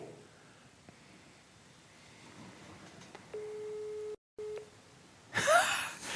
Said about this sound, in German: Oh, jetzt ist auf einmal besetzt. Ah, hat er mich Rick Goldmann hat mich weggedrückt.